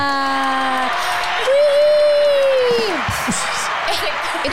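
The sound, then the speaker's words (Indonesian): A canned applause and cheering effect played on a soundboard to welcome two guests: steady dense clapping with crowd noise, a sustained whoop rising out of it midway, loud and continuous for about four and a half seconds. “Wih, eh, tepuk tangannya”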